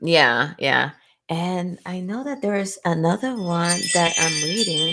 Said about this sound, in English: Oh, that's my phone. I'm sorry.